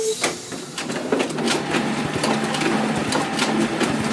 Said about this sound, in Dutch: ja, zoals je hoort. Je kunt wel een goede kopieermachine gebruiken in de techwereld.